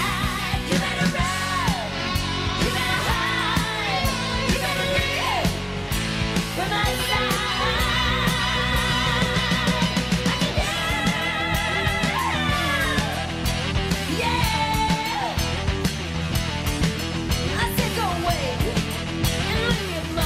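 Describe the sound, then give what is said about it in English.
A loud, dense cover version of a rock song plays continuously from a recording, full band instrumentation driving steadily while a female sung vocal line slides and soars on top, including a high-pitched scream. “Uh, but I want to play a little clip of this song because I think it's absolutely incredible.”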